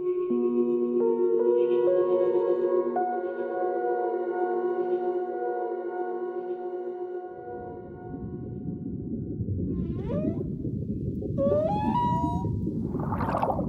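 Underwater whale calls: long, tonal moans with sliding harmonics, then rising whistling sweeps over a dense low rumble. No one speaks, and the calls sound loud.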